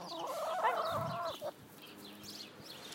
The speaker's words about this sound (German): Also, ich sag, das ist das reinste Hühnerkonzert.